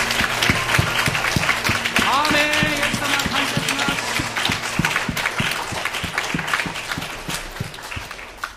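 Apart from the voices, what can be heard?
audience applauding loudly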